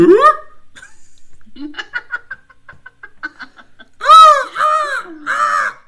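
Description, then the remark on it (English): A person imitates a seal, letting out three loud, raspy, honking barks in quick succession near the end, preceded by softer broken vocal noises and giggly sounds. “I want to like next time I actually engage in those adult activities, I want to start making seal noises.”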